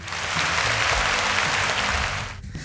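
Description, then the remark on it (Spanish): A burst of steady applause from a group fills the space, dense clapping that holds at an even level before dropping off briefly near the end and picking back up. “un aplauso, matate un aplauso, dale.”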